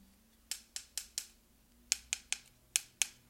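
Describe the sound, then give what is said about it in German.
Metal grill tongs click together in quick bursts, four sharp clicks, a short pause, then five more, crisp with no one talking. “Wenn man so eine Grillzange in der Hand hat, hat man auch immer das Bedürfnis, so, so zweimal zu klickern.”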